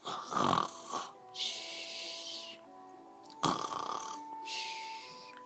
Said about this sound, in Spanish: Esa noche, el tal señor Inflón se fue a dormir. Pronto comenzó a roncar. Los ronquidos eran cada vez más y más fuertes.